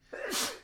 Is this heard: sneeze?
yes